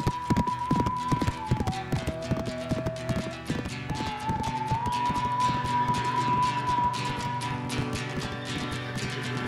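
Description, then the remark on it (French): A horse with a black mane gallops through a snowy forest with a steady, rapid clip-clop of hooves, fairly loud, over a sustained tonal hum and musical backing for the whole stretch. “Brony s'élance au galop dans la forêt enneigée, son petit maître lutin solidement accroché à sa belle crinière noire”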